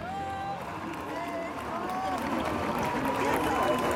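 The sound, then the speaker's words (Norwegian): A dense outdoor crowd at a music festival in Roskilde, Denmark, murmurs and chatters steadily, many overlapping voices blending into a continuous hubbub with occasional shouts, at a moderate, even level throughout. “Dette er lyden av Roskilde-festivalen i Danmark, der flere danske foreldre denne uken har klaget over at barna deres ble både kalde og våte.”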